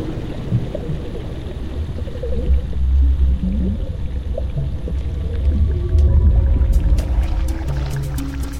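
Underwater vocalizations of a female sperm whale rising from the depths toward the members of her clan: a low, steady rumble of water with faint warbling tones, then a run of sharp, irregular clicks in the final seconds. No voices are heard.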